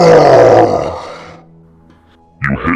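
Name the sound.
voice imitating a roar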